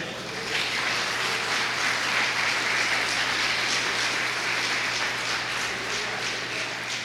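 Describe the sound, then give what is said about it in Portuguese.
An audience at a religious service gives an applause to the Lord, a dense, steady wash of many hands clapping that holds at an even loudness for about seven seconds, with no voices over it. “Quantos podem dar um amém e um aplauso ao Senhor neste lugar?”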